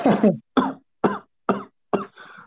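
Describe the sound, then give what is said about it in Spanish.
A voice imitates a coughing fit: five harsh coughs in a steady rhythm, the last trailing off into a weaker, raspy wheeze. “Puta, me aventé que te gusta, güey, como dos minutos, tres tosiendo, güey, pero así sin parar, güey.”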